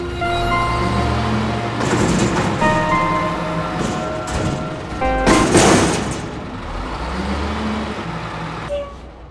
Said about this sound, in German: Wir hören hier die Müllabfuhr.